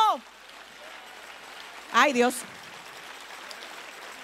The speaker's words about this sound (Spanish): Si ese es el aplauso.